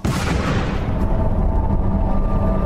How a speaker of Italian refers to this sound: Salta in aria una macchina imbottita di tritolo. Perdono la vita tre carabinieri, un quarto resta. Ho sentito un boato spaventoso e un bagliore che mi ha accecato corpi dilaniati con eh, arti nel raggio di 100 metri, una cosa terrificante.